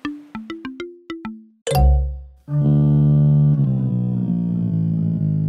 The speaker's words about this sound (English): can you hear that music? That means that Chester the Jester is on his way.